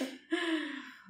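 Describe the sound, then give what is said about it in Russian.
A single sneeze by a woman: a quick sharp intake of breath, then a sudden voiced burst that trails off over about half a second, with no talking around it. “…, будь здорова.”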